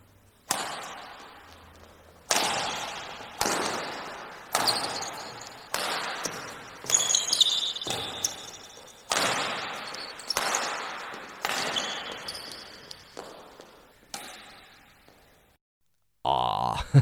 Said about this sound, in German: Es war nämlich ein badminton also Federball sozusagen.